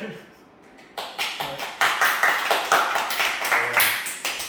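Steady hand clapping, a quick run of sharp, even claps starting after a brief quiet moment and continuing in a regular rhythm, fairly loud and with nothing else over it.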